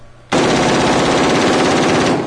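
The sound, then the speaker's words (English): A loud, sustained burst of rapid rifle fire erupts abruptly after a brief quiet moment, the shots rattling in a fast, steady rhythm for about two seconds with no one speaking. “mean fucking bruise on his shoulder area from holding that gun.”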